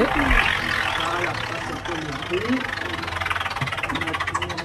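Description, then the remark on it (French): A colorful spinning prize wheel, with prizes set around it, clicks in a rapid, steady ratchet that grows more prominent toward the end, while people talk over the start of the spin. “Il y a plein de couleurs sur cette roue et puis il y a plein de prix autour.”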